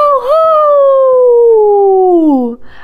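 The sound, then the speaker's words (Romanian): A single wolf howl, loud, holding one long tone that slowly slides downward in pitch for over two seconds before breaking off, followed by a brief soft rustle. “Astăzi e o zi pe placul unui lup. Lup? Păi ce, în pădurea asta sunt lupi?”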